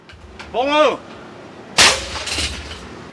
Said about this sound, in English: A clang and a puff of white steam rising. That's the sound of rice puffing.